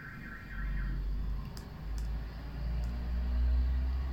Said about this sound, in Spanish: Amor, qué pena, suena la alarma de un carro.